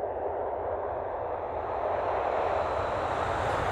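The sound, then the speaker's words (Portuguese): A jet airplane roars past, a steady broad engine rumble that swells slightly and brightens, filling the whole few seconds with no voices. “Então, vamos pegar o avião de novo para saber como foi esse trabalho de reabilitação no Brasil”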